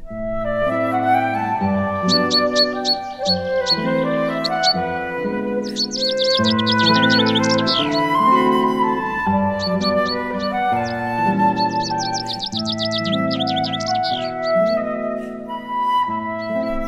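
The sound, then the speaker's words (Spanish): Birds chirp and sing in quick bright bursts in a small courtyard of orange trees, coming and going in clusters over a steady, sustained instrumental music backdrop, with no one speaking. “En este breve patio de naranjos se resume el perfume de los siglos y cantan todos los pájaros del mundo.”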